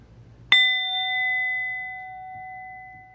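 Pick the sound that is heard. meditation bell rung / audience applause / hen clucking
meditation bell rung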